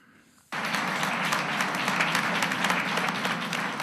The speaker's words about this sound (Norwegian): Magnus Carlsen fikk applaus fra pressen, men gjorde alt annet enn å juble for remis i det tredje partiet i VM.